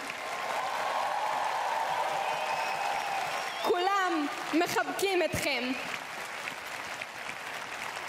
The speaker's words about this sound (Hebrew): תקשיבו למחיאות הכפיים.